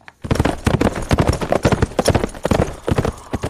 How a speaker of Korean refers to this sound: 어, 말 달리는 소리입니다.